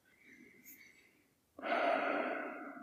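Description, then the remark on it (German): A calm, deliberate breath taken as part of a breathing test: a soft, airy inhale followed by a louder, steady exhale that trails off, with no talking. “Und das geht so, dass man ein paar Mal einfach ganz normal atmet, ein- und ausatmet, bewusst.”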